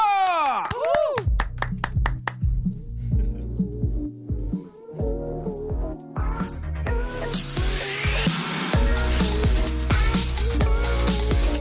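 An audience claps and cheers while a song starts up, with sharp percussive hits and a pulsing beat mixing into the steady wash of applause, which grows louder toward the end.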